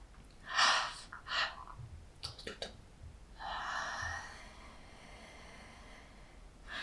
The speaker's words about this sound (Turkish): O yüzden bunu hani bilinçli bir şekilde yapabilirsiniz. E, iki tane nefes alıp